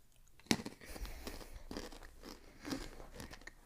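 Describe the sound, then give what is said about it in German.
Crunching and chewing of a crispy paprika-flavoured snack from the brand Alesto, with a sharp bite near the start followed by repeated crackly chews at an uneven rhythm, with no talking. “Wenn man mehr isst, kommt auch dieser andere Paprika-Geschmack.”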